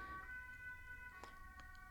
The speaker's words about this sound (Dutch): Ja, sorry, ik, ik doe even mijn hand omhoog, want eh, er is een ambulance. Oh, er komt er nog één. Het is druk.